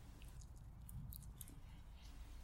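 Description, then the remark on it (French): A hedgehog chewing food noisily, with quick wet smacks and crunchy clicks scattered over a low steady rumble, fairly quiet overall. “Pas vraiment discret, il mastique bruyamment.”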